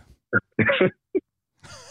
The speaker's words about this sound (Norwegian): Jeg beklager, jeg fikk en liten hostekule her.